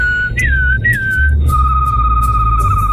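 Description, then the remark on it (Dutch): Someone whistles an imitation of a canary's song: a few short, wavering rising-and-falling notes, then a long, steady high trill, all over a constant low rumbling hum with no talking. “Een kanarie natuurlijk.”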